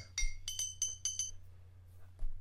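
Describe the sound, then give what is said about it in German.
Glass bottles clink against each other in a quick run of about five bright, ringing taps, then fall quiet, with a low steady hum underneath and no voices. “Ich hätte eigentlich die Flaschen filmen sollen wollen.”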